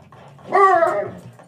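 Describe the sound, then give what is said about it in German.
A dog lets out a single drawn-out whimper, a high, tonal whine lasting about half a second that slides slightly downward, fairly clear over a faint low background. “Also man muss dazu sagen, dass mein Hund deinem Hund manchmal ein bisschen auf den Sack geht, weil die noch voller Liebe und Aufregung Konkret ist.”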